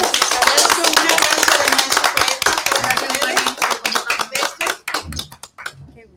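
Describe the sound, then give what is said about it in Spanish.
A crowd bursts into dense, steady applause for the maestro that gradually thins into scattered individual claps and dies out near the end, with a faint murmur of voices as it fades. “Un aplauso al maestro.”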